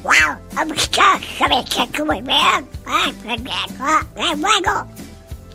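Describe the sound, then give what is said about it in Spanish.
A voice imitates a cartoon duck, rattling off a rapid string of nasal, squawking quacks like garbled speech. The quacks are fairly loud, continuing almost without pause for several seconds. “Entonces, pues esta empresa donde sale un ratón, donde sale un pato.”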